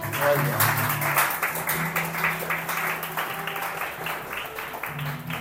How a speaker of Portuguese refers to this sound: Glória a Deus por isso, hein? Aplausos Jesus por isso, em nome de Deus.